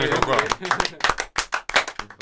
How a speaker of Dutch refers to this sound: Goed dan, Klein applaus.